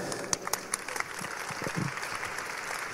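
An audience applauds steadily, a dense patter of many hands clapping at once, moderately loud and continuous for a few seconds, with a few sharper claps standing out.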